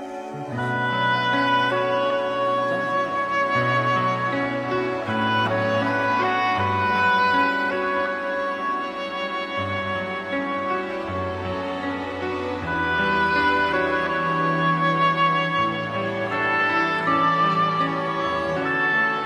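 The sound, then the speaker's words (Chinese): The ending theme of the Japanese TV drama Sayonara Ri Koran (别了李香兰) plays: a lush, melodic arrangement with sustained tones over a steady, shifting bass line, holding an even volume throughout with no one talking. “这个是呃日剧叫《别了李香兰》片尾曲。”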